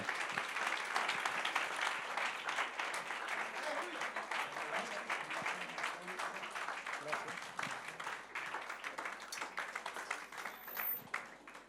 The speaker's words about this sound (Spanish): De un fuerte aplauso de alabanza al Señor.